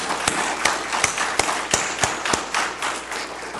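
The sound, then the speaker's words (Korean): A church audience at a special dawn prayer service applauds in thanks to church members and the service accompanist: a steady, dense patter of many hands, with a few sharper, louder claps standing out at a roughly regular pace. No one speaks over it. “이 모든 분들에게 여러분 한번 박수를 좀 하겠습니다.”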